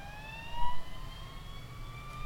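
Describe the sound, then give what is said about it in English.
A steady electronic whine with several stacked tones slowly rising in pitch, like a siren, sounds continuously over a low rumbling background hum, with no voices, as a gadget is pointed at a microphone. “So if I point at his microphone, it sounds like a siren.”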